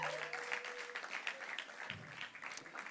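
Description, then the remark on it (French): An audience applauds the band steadily, a dense patter of many hands clapping at an even, moderate loudness for the whole stretch, with a brief faint tone and a low thump partway through. “On peut les applaudir, ouais”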